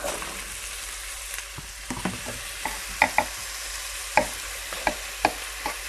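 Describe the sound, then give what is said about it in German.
Steady sizzling of tomatoes added on top of ingredients sautéed in hot oil, a dense crackling hiss punctuated by sharper pops and spatters, fairly loud, with no voices. “Rutschelt richtig, das war ja jetzt nur in Öl angeschwitzt alles, angebraten deswegen brötschelt das jetzt richtig.”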